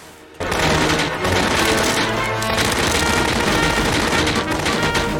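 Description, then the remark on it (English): Loud machine gun fire in a film, fired by the character Dudley, breaks out after a brief quiet moment and keeps going as a dense, continuous rattle of rapid shots, mixed with booming crashes, with no one talking. “Okay, so I can't pretend this is clever writing, but something about seeing Dudley do right with a machine gun.”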